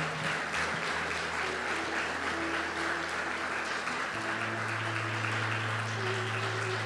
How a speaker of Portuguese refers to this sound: Amém, queridos? Você pode aplaudir o nome do Senhor.